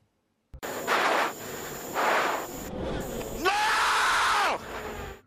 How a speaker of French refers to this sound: Ce fut le moment fort du Grand Prix de France dimanche dernier. Le souffle saccadé et le cri de rage de Charles Leclerc après avoir fracassé sa voiture dans le mur.